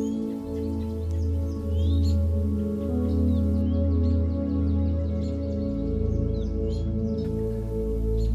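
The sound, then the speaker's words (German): Scattered birds chirp and tweet lightly in a forest clearing, over a steady, sustained low drone that fills the background throughout. “Hörst du vielleicht ein paar Vögel?”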